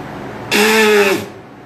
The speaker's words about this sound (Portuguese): Eita, buzina!